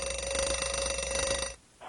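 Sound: alarm clock ringing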